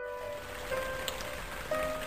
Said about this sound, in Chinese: 那是个突然的雨夜，雨滴没有丝毫征兆的从天而降，让很多人猝不及防。